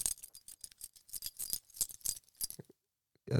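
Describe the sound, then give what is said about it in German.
A bunch of keys is shaken, giving a rapid, irregular metallic jingle for nearly three seconds, then a brief pause and a soft thump at the end. “Also ich wollte jetzt nur den Sportclub gratulieren, indem ihr, indem meinen Schlüsselbund halt.”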